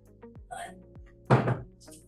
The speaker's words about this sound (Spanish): Es que me tuve que parar. Me escucho caminando por mi cuarto.